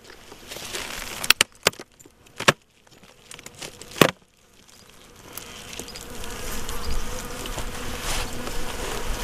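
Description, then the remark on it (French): Honeybees of a weak colony buzz at an opened hive on a very fine, windless day, a steady droning hum that swells and holds over the second half, preceded by a few sharp clicks and knocks. No one speaks. “là, ça c'est une ruche qui est, on va dire, qui est euh, faible.”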